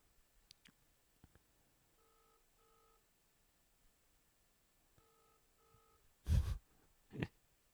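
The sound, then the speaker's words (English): Faint electronic phone dialing tones play through a speakerphone in two short paired bursts, followed by a couple of louder clunky handling thumps near the end. No one speaks. “I'll just put it on speakerphone though.”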